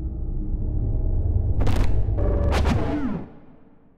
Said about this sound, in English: And he slams the door shut.